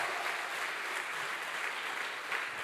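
A church audience applauds the Lord steadily, a dense wash of many hands clapping at an even, sustained volume throughout with no talking over it.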